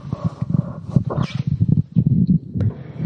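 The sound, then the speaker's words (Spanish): A tiger roars and growls in a continuous run of deep, rough bursts, low and loud throughout, with no voices present. “Pero venga el tigre.”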